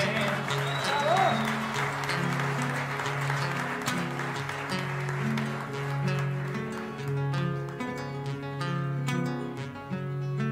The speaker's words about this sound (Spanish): Aplauso a mis compañeros que son todos ganadores.